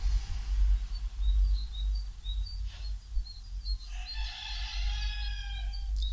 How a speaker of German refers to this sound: habt ihr gehört? Dieses überpotente Hähnegebrülle hier So geht das die ganze Zeit.